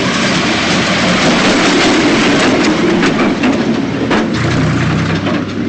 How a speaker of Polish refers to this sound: Dobra, traktor przyjechał.